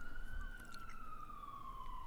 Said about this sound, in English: Shut up, Siren.